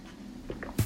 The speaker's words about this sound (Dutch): Nou, ik moest even een slokje water pakken tussendoor.